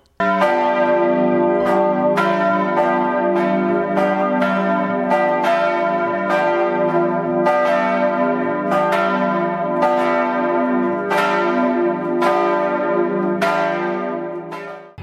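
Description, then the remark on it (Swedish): Church bells peal loudly and steadily, with repeated overlapping strikes roughly once a second and a rich, ringing hum sustained between them. No voices are heard. “Jag hörde nästan kyrkklockorna ringa.”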